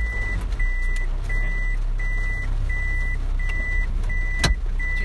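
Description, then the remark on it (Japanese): A car reverses in the rain with a steady low engine rumble while a high reversing alarm beeps evenly, about eight short tones over five seconds, clear, with no talking. “ちょっと雨がね、うん聞こえてきたんでね、バックしましょうかバックしますかうんちょっと大丈夫ですこバックしてバックしてちょっといけるかなと”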